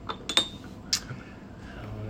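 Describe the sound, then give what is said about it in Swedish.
A few sharp, bright clinks of a ceramic coffee cup as someone sets it up to pour coffee, three quick taps early on and one more a moment later, over a quiet background hum. “Kaffekopp oh. hälla upp lite här.”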